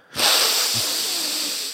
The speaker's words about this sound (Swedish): andas in med näsan när någon säger något sådär snällt.